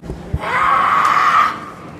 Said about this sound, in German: Das war die erste Freiwillige hier auf der Wiese, wo sich andere Leute sonnen und komisch geguckt haben, als sie angefangen hat zu schreien.